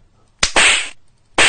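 A neighbour's punch to a man's face lands as a sharp slap-like smack, followed by a loud, bright, noisy burst that fades, then another loud hit near the end. No voices.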